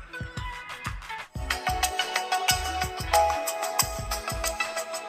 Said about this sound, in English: Now we will listen a melodious song.